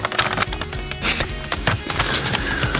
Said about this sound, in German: das Seiten und Blättern der Nachrichtensprecher im Deutschlandfunk